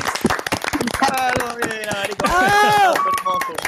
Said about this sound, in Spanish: Esto es como el chavo, como una forma de respeto al público, este programa no tiene aplausos grabados. Yo soy, yo soy, yo soy fan de los aplausos, bro. Entonces, otro aplauso, por favor.